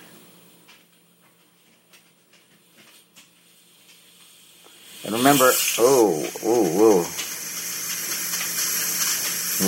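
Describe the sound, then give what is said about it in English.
A pressure cooker full of broth, leeks, onions and vegetables has its valve turned slowly by hand, bursting into a loud, steady hiss of escaping steam about halfway through and continuing to the end, while a person talks quietly before it and then exclaims over the rush. “Releasing pressure. Oh, and I can tell it's just really full of liquid, so I gotta be really careful. Turning the valve right now, really slowly.”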